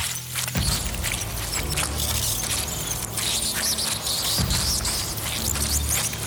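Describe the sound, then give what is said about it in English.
A dense swarm of thousands of rats squealing and scurrying in pursuit, a continuous chaotic roar of high-pitched shrieks over rumbling scrabbling, loud throughout with no pauses. “The scream that erupted from the rats had now sounded like one all encompassing roar. They chased after me.”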